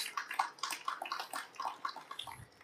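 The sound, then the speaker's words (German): An audience at the FAZ stand applauds steadily to welcome the author of a book about pandemics, a dense patter of many hands clapping at even loudness for a few seconds, with no voices over it. “Und wir dürfen, glaube ich, klatschen. Begrüßen Sie mit mir kurz den Autor.”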